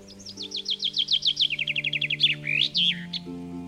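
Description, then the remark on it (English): A rose-breasted grosbeak perched in a maple tree sings in spring: a rapid series of bright, descending chirps followed by a few louder whistled phrases, clear over a faint steady hum in the background. “Several springs I've been serenaded by a rose breasted grosbeak perched in the tree while planting morning glories.”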